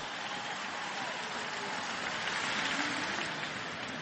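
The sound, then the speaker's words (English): A large ballpark crowd applauding former designated hitter Jim Thome, a dense, steady wash of clapping that holds at an even, fairly loud level for the full four seconds, with no voices standing out. “Big round of applause for Big Jim.”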